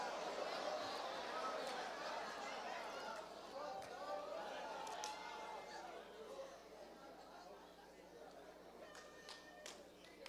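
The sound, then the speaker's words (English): A large audience turning to one another and chatting all at once, a dense, lively murmur of overlapping voices for several seconds, with occasional sharper exclamations rising above it. “Now turn to somebody, smile at them, let them see your teeth or at least where they used to be, and say to them, The goat has left my house.”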